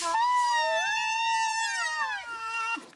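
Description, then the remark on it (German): A white rhinoceros gives one long, high squealing whine that rises and then falls in pitch. It is loud, heard alone with no talking. “Ja, so klingen tatsächlich Breitmaul-Nashörner.”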